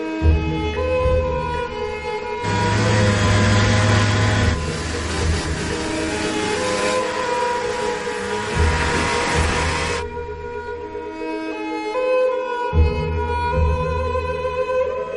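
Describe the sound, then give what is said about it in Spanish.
Snowmobile engines roar continuously as two police officers on snowmobiles chase a man along a path through trees, a loud mechanical drone with a harsh rushing surge through the middle stretch that fades back to a steadier whine; no one speaks. “Dos agentes lo persiguen en motos de nieve lo siguen por un camino que discurre entre árboles.”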